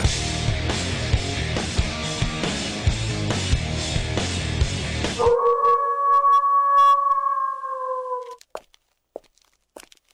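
A wolf howls once in a long, steady, mournful note that slowly sinks in pitch, right after a loud burst of dense music cuts off; a few faint clicks follow.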